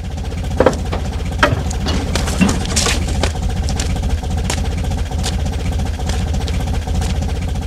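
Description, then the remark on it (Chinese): A foley sound effect added for an American jeep carrying Ying Da in his entrance scene in the film Party A, Party B (甲方乙方): the engine idles with a low, steady rumble while irregular creaks and sharp clicks of the vehicle body break through now and then, a few louder than the rest. “甲方乙方那里边，英达一出场的时候，美吉普的车上，这个你再大的分量，你也做不出那个汽车那个吱嘎吱嘎的声音。那么呢，我们逆音师把这个声音要给它附加上去”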